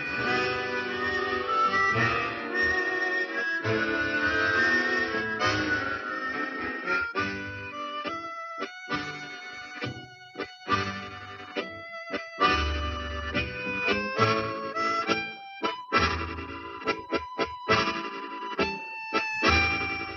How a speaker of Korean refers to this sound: 지금 들리는 리드 사운드가 이제 에코 챔버를 통해 잔향감을 얻은 부분이죠.